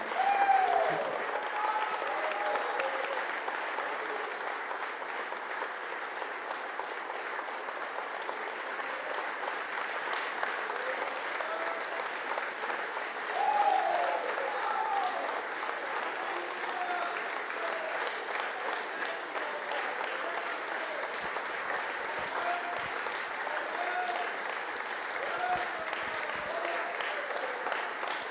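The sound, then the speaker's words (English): A church audience gives a clap offering after a prayer, clapping in a dense, steady wash of applause that holds evenly for nearly half a minute, with a few brief raised voices cutting through now and then. “That was a very poor clap offering.”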